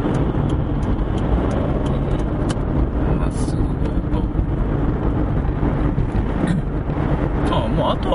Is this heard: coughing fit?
no